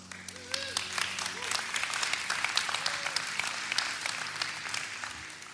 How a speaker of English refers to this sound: If you're going to applaud excitement, just keep, keep it going